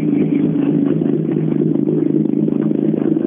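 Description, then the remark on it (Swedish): A rally car engine runs steadily with a dense, mid-pitched droning growl and some rattling clatter, loud and continuous throughout with no voices. “Han går rätt bra i maskin, va?”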